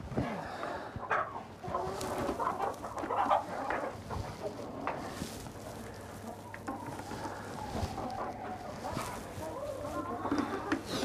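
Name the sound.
hens clucking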